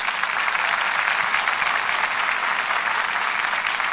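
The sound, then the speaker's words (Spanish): A church audience claps steadily in applause to the Lord Jesus during a sermon, a dense, even wash of applause that holds at the same loud level from start to finish with no voices over it. “Porque si no predicamos el Evangelio, den un aplauso al Señor Jesús.”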